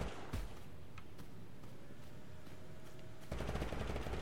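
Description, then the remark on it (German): Rapid bursts of video game gunfire crackle over a dense, rumbling battle din, with a sharp shot early on and a louder, more intense flurry of firing near the end. “Ach du Scheiße, wer ballert denn hier?”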